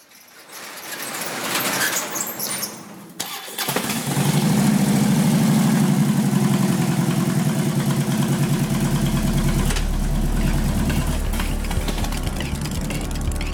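An engine cranks briefly, then fires up and settles into a loud, steady idle with a deep, throbbing rumble, with no one talking.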